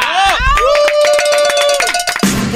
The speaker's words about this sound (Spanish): Wow. Venga el aplauso, bro